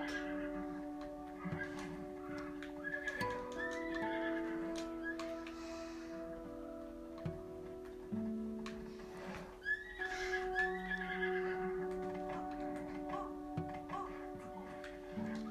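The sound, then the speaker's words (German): A horse whinnies over a steady bed of sustained musical tones, with faint rhythmic ticking and light hoof clip-clops mixed in; no one speaks. “So, das Pferd ist da unten, kann ich mehr weg.”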